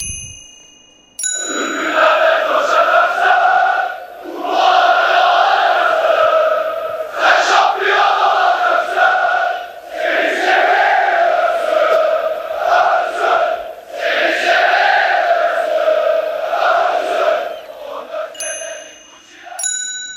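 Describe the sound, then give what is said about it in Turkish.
A large crowd of Galatasaray football fans sings a Galatasaray chant together in a stadium, a loud, sustained sung chant rising and falling in repeated phrases for about seventeen seconds, with faint ringing tones at the start and end. “En sevdiğiniz Galatasaray tezahüratı hangisi? İşte bu.”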